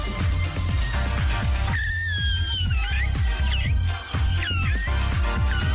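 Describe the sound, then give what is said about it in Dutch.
A woman's thin, squeaky, strained singing voice cracks and wavers in high wobbling pitches over a steady, pounding low beat at a concert, loud throughout. “toevallig passerende fan wist ons na afloop te vertellen dat er slechts een piep- en knarsgeluid uit haar strot wist te komen.”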